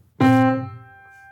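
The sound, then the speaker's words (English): The first note of a scale, the tonic, is struck sharply, then quickly fades into faint, lingering aftertones in which the dominant rings softly, with no voices present. “I won't play it again, but you'll hear just the faintest aftertones, because the musical information in that note is contained in the first note.”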